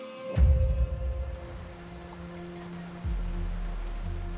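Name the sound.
rain falling at night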